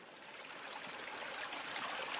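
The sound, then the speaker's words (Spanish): Steady trickling of a small stream from a spring of fresh water on an island, a continuous bubbling wash of water that stays fairly soft, swelling slightly louder toward the end with no voices present. “pronto encontré un manantial que daba un agua fresca, de sabor muy agradable.”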